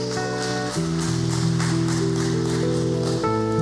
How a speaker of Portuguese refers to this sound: Então dá um glória a Deus bem bonito, bem alto. Aplaude Jesus mais uma vez.